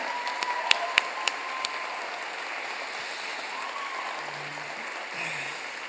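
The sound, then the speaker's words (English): An audience at a church service applauds steadily, a dense wash of many hands clapping, with a few sharp, louder claps standing out early on before the applause settles into an even, sustained roar. “Keep on clapping.”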